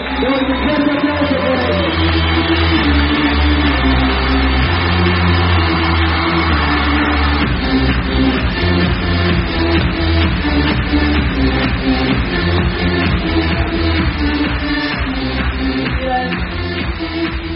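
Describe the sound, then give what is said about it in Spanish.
Loud, sustained audience applause fills the whole stretch, a dense steady roar of many clapping hands with a low droning tone running underneath, and no pause in it, at a company event in Quito as the staff stand up. “Ellos son los líderes que más ganan acá todos ellos son los rangos más altos, todos son platinos los mil para arriba y aplauso”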